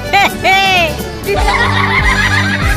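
A horse whinnies loudly in two quick bursts, its shrill neigh wavering before fading into a steady low rumbling background.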